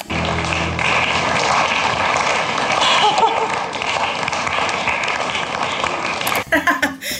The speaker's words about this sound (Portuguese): Gente, uns aplausos muito xoxos mornos. Ai, eu amo a reação desse público, gente.